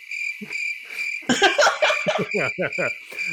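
Crickets chirp in a steady, high continuous trill throughout, with laughter and voices breaking in over it during the second half.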